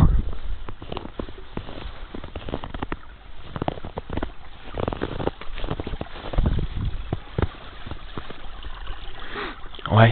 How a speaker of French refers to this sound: c'est le petit ruisseau. C'est toujours des petits bruits sympas, je trouve, à écouter, moi.